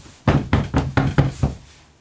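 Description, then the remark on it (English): Six firm knocks on a door in a quick, steady rhythm, fairly loud, with no voices, then a short quiet tail as the last knock fades. “I think someone's at the door.”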